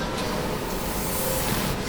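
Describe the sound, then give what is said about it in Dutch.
A train washing machine sprays soap onto a train at its spray arch: a steady, dense hiss of liquid onto a large metal surface, continuous and fairly loud throughout, with a low mechanical rumble underneath and no talking. “Nu wordt er zeep op de trein gespoeid.”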